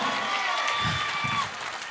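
A crowd applauds steadily, a dense wash of clapping that holds at an even loudness throughout, with a few scattered cheers and voices mixed in before it thins slightly at the end.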